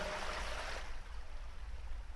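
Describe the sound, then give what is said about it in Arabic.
A steady rush of flowing river water, a continuous hiss and churn that is fuller for the first second and then settles into a softer, even flow, with no voices. “ثم تقدم بهم الى حافه النهر اتخافون من هذه النطفه”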